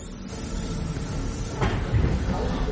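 Heavy sliding doors of railway wagons rumble and clank as a train stops at Auschwitz around 10 in the morning, over a low, steady mechanical background, with a sharper scrape and knock partway through, moderately loud.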